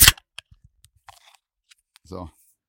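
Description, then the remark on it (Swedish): A tall can of Mariestads Old Ox beer is cracked open with one sharp pop and hiss, followed by a few faint clicks and rattles, then a short vocal sound near the end. “Ska du knäppa en lång burk eller?”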